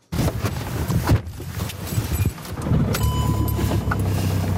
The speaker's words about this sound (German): So tönt es in den Churer Taxis zurzeit eher selten. Der Motor bleibt wegen Corona nämlich mehr ab als angestellt.